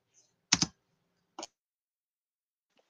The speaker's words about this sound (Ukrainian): Ні, я тільки тумблер чую, вибач.